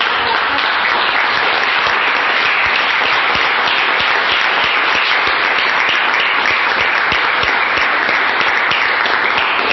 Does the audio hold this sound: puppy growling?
no